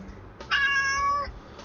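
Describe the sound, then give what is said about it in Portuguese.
A single drawn-out cat meow, clear, rising into a bright harmonic whine for under a second before fading, with no talking. “Mas diz o que, que você quer. Gatinha”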